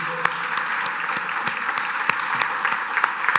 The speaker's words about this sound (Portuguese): Vamos aplaudir o Senhor Jesus mais uma vez.